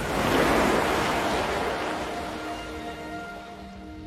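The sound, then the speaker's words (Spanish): A geyser erupts as a bubble of superheated steam bursts and pushes a thin layer of water upward, a loud, roaring gush of water, a broad continuous rush that peaks early and slowly eases, with no voices. “Cuando la burbuja revienta, estroca, explota.”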